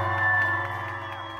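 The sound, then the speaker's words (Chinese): An audience screams and cheers to welcome Golden Melody Award-winning singer at the outdoor 2022 小人物音乐季 concert held by Windy Music at the Taipei Expo Park, a steady, dense roar at a fairly even loudness with high-pitched shrieks woven through. “让我们欢迎金曲歌后…尖叫声，”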